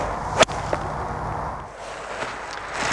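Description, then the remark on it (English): A single sharp, crisp crack of a golf iron with a larger, offset clubhead striking a ball, loud, followed by a fainter click and a quiet outdoor background with no talking. “As the head is getting bigger, you're starting to notice a slight difference in the sound.”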